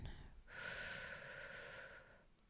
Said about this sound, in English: Breathe in.